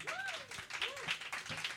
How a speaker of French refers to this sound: Mesdames et messieurs, yeah! Ben ouais, on peut les applaudir.